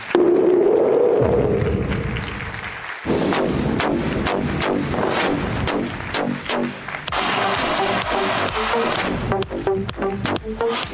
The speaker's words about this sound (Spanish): Quiero dejarlos en esta parte con mi esposa, que es la que realmente hace el negocio. Entonces recíbamela con un fuerte aplauso.